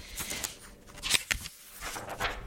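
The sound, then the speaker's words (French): Crisp paper rustling as book pages are turned or folded, with a few sharp crackling bursts over a soft, continuous papery shuffle, fairly quiet. “En tout cas, je crois que si on entend ce bruit-là, tout le monde peut référer à une page de papier qu'on plie ou qu'on tourne d'un livre.”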